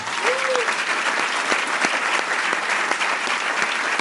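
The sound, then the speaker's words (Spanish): A large audience claps steadily and enthusiastically, a dense, continuous wash of applause that holds at full strength for the whole stretch, with a brief whistle or cheer early on. “Entonces démosle un fuertísimo aplauso.”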